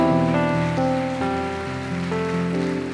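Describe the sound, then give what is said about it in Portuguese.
A church audience claps for the Lord in a steady, dense patter that holds for the whole three seconds, blended with sustained keyboard or organ chords that shift pitch now and then. No one speaks. “Essa aliança se chama Jesus, se é para Ele, fica de pé e aplaude o Senhor.”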